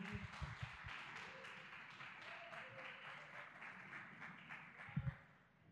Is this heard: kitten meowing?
no